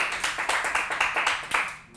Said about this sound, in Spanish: Alguien den un aplauso fuerte al Señor.